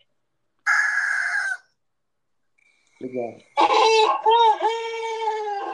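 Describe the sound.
A rooster crows loudly, one long, wavering cock-a-doodle-doo filling the second half, after an earlier shorter harmonic call and a brief spoken word.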